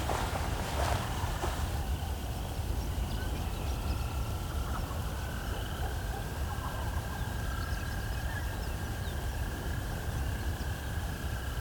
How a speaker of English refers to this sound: There's a couple banks in front of me of ditches, and then some quarry on the other side. It's almost like these larks are either in the ditches or on the banks. Can't really see them, but they're quite loud.